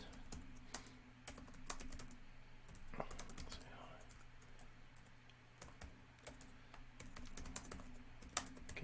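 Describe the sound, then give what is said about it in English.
Steady clicking of keys on a computer keyboard as someone types a short message, irregular bursts of quick taps over a low constant hum, with faint murmuring voice in the background. “So basically, I just put in here we've been friends for a while, but we never chatted.”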